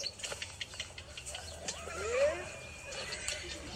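A horse on Büyükada, Istanbul, one of the former phaeton horses bought by the Istanbul Metropolitan Municipality, lets out a single wavering whinny partway through, rising then falling in pitch, over a busy outdoor background with light knocking and clopping sounds at the start.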